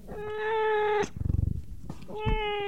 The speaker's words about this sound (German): Streuende Katzen.